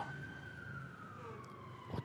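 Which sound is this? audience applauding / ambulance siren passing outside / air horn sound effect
ambulance siren passing outside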